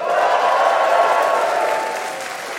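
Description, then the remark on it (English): A live audience at the annual European Barn Doors and Gates Expo applauds with steady, dense clapping that holds strong for about two seconds, then begins to taper off slightly at the end. “This edition of the podcast is a very special one as it's being recorded in front of a live audience.”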